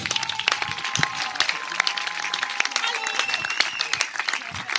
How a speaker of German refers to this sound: Dann Applaus, ihr Lieben, für unsere Dialektshow.